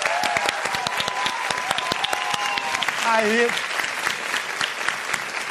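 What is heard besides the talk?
audience applause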